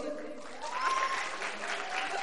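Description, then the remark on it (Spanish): A crowd claps steadily for about two seconds for contestant pick number one, a dense, even wash of many hands with a faint high whistle-like tone cutting through partway. “Aplausos.”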